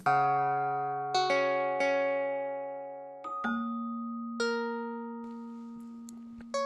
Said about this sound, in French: Ce son, c'est l'activité en direct de l'encyclopédie en ligne. À chaque modification, ça sonne. Un son de cloche, c'est quelqu'un qui ajoute euh, du contenu à un article.